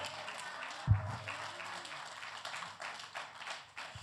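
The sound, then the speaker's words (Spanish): Sustained audience applause, a dense crackling wash of many hands clapping steadily for several seconds, with a brief low thump near the start and no speech. “Fuerte el aplauso sin altriti, por favor.”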